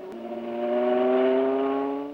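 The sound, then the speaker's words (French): A car engine being warmed up revs, its steady droning hum climbing gradually in pitch and swelling in loudness over a couple of seconds, with no voices; the coolant is warm but the oil is not yet. “fait chauffer le moteur, mais l'eau est chaude seulement, pas l'huile.”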